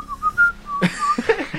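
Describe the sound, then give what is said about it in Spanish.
Someone whistles a short classical symphony melody, a few clear stepped notes rising and falling, fairly loud. Breathy vocal sounds and a voice briefly overlap toward the end. “no suena no suena el pedo, sino la sinfonía de la alegría de, de, Beethoven”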